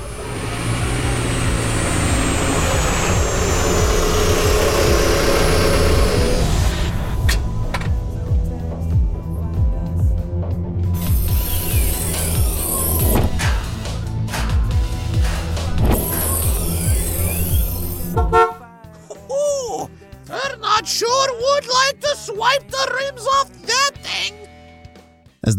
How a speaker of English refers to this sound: A lime green and chrome vehicle of some sort pulled up in front of the store, hovered for a few moments, and then parked.